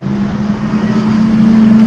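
A loud, steady race car engine drones on a low buzzing note for a couple of seconds, its pitch and volume creeping up slightly, with no voices over it, during SCCA Hoosier Super Tour Race 4 at Sebring on 15 January 2022.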